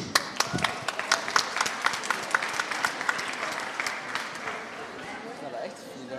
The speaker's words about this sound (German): Und dann Applaus für so viele Bingos.